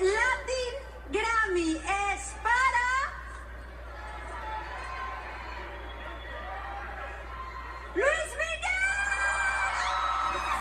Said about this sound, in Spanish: A ver, a ver. Permíteme tantito, este, se oye muy saturado ahora, pero escucha esto, eso es lo que sucedió en el abucheo. E, era Talía la que entregaba el premio.